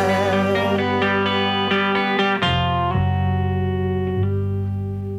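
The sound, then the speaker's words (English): An electric guitar plays a few quick chord strikes, then lets a final note ring out and slowly fade, with a heavy echo trailing behind it. No voices. “He lets that ring just a little more. It's such great playing.”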